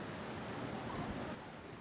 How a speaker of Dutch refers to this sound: Eh, maar het brengt mij wel bij de vraag, als we zo vlak bij jullie huis uitkijken over die immense zee.